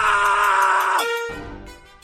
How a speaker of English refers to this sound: Whoa, whoa, what's with the scream?